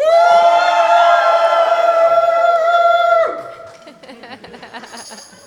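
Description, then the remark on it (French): A loud, sustained group shout, called on a count of 1, 2, 3, holds steady for about three seconds, then breaks off abruptly, leaving scattered voices and murmurs trailing after it. “Alors, vous voulez faire un petit exercice de crier De près, 1, 2, 3. trois.”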